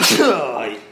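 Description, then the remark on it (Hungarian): A single loud sneeze bursts out with a sharp breathy onset, then trails off into a fading voiced exhale. “Egészségedre.”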